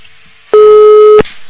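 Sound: telephone busy tone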